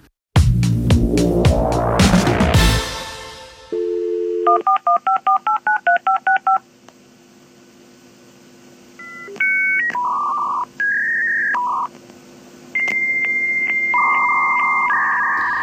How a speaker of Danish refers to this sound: En gang var det her lyden af fremtiden. Så lød det nemlig, når man via et modem skulle ringe op og koble sig på det nye World Wide Web.